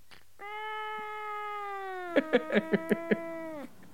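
A cat lets out one long, drawn-out meow held at a steady pitch for about three seconds, with five quick rhythmic pulses breaking into it near the end. It is clear, with no talking.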